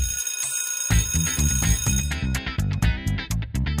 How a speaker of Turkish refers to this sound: Okul zili.